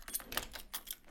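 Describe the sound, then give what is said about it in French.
The heavy lock mechanism of a new armored door with a reinforced three-point lock working, a quick run of sharp metallic clicks and clacks, with no voices. “Ça là, c'est le bruit de ma toute nouvelle porte.”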